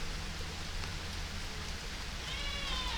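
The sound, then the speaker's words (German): Steady rain falls outside on a balcony, a continuous soft hiss of drops pattering on a surface, even throughout, with a low background rumble and no voices, while the sun shines faintly through the rain. “Und die Sonne kommt noch etwas vor hinter den Wolken und, und, und scheint ganz wenig, also ja, durch den Regen durch.”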